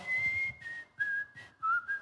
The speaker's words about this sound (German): Komm, wir pfeifen jetzt einfach.